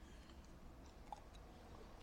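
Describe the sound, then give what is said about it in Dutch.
Quiet mouth sounds of someone taking a sip of water, with soft wet swallowing noises and a single small click partway through; nobody speaks. “Sorry, even een slokje water.”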